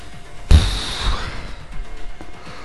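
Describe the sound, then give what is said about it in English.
A person yawns: one breathy, open-mouthed exhalation that swells suddenly, then trails off over about a second into quiet breathing, with no talking. “Oh dear, yawn out of nowhere. I shouldn't even be yawning.”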